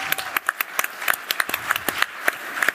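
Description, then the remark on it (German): Audience applause welcoming the guests: a steady patter of many hands clapping at once, sharp bright claps rising out of a dense wash, moderately loud and without any voices. “Applaus nochmal. Vielen Dank.”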